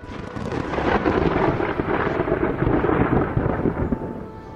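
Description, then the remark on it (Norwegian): A sustained, heavy rumble of thunder rolls on for several seconds, loud, with a broad crackling roar over deep low booms and no voices. “Han styrer været, lyn, torden, snø, hele pakka.”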